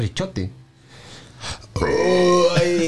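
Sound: coughing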